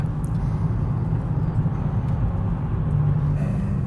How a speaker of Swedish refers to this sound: sitter i parets bil. Vi är på väg till Olshäll.